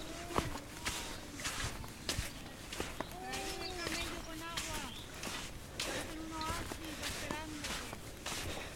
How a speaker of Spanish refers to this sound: el vacío y mis pasos sobre la arena